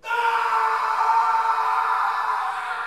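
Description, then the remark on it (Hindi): A man lets out one long, pained scream, loud, held steady for nearly three seconds before tapering slightly at the end, with no other voices or sounds around it. “और अगले ही पल रोहित की बस एक दर्द भरी चीख उस जगह पर गूंजी”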